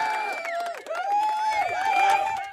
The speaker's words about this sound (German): Und ja. da sogar einen Applaus für den einzigsten Kom Kommentar heute.